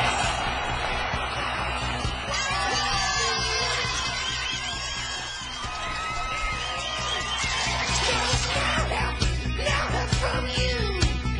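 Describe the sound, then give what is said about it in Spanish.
A dense, steady wash of crowd noise with shouts and whoops rising above it, and sharper clapping that thickens toward the end, like an audience applauding and cheering for about eleven seconds, played on a radio show. “Los aplausos para todos ustedes.”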